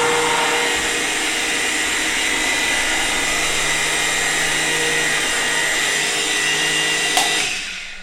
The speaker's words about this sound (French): Là, vous voyez, on voit bien le. Si je lève le mixeur, on voit bien la trace que laisse la, pâte sur le dessus.